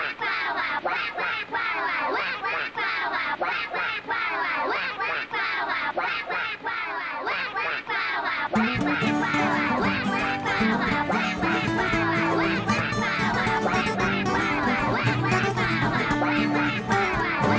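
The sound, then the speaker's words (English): A dense chorus of ducks quacking rapidly and continuously, loud, with music swelling in underneath about halfway through while the quacking carries on. “if it rains all week pretend you're a duck.”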